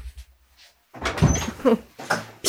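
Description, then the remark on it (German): A door bangs shut amid a flurry of knocking and rattling thuds as someone runs out through it, with a final sharp slam at the end, loud after a brief quiet start. “Ich, äh, ich höre nur die Tür schlagen.”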